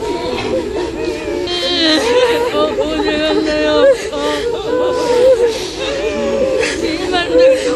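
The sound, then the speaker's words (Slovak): A large crowd in North Korea wails and sobs together on the street, mourning the leader's death, many overlapping voices rising and falling in loud, continuous lament with no pauses, the keening cries layered densely over one another. “Áno, smrť vodcu sa tam družne a povinne oplakáva rovno na ulici.”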